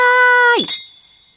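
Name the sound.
glasses clinking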